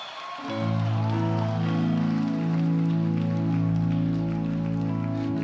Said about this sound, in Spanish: Oh, alguien dio un grito de gloria al rey. Vamos, vamos, dáselo fuerte, ponte de pie, dale un grito de victoria.